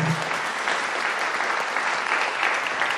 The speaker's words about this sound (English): Let's pause just a moment to give her applause.